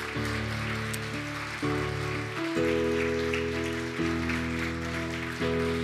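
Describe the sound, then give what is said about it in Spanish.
An audience at a church service in Mendoza, Argentina applauds steadily throughout, clapping for God, a dense wash of clapping mixed with sustained keyboard chords that shift every second or two. “Dale un fuerte aplauso a nuestro Dios.”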